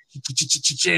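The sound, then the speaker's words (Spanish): A voice imitates heavy djent guitar distortion with about six rapid, evenly spaced chugging bursts, each a low growl topped by hissing noise, loud. “Y el, y el … dijo, busco una distorsión que suena así como, como, así como que”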